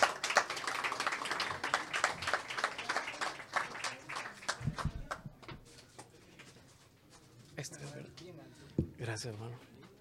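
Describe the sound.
An audience welcoming a writer to a reading breaks into a burst of dense, steady clapping that lasts a few seconds and then thins out, giving way to scattered voices and a few soft knocks.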